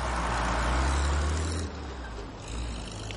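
A bus pulls away from a prison supply gate, its heavy low engine rumble strong at first, then easing off while road noise continues. No one speaks.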